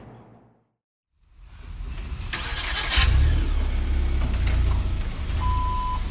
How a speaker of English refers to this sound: A worker backs up a forklift inside the cavernous Phoenix warehouse belonging to Pro-Am National Event Services.